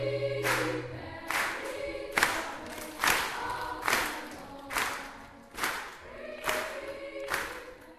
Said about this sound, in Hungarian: A közönség azonnal tapsolni kezd, amint vége a dalnak, majd állva ünnepelnek.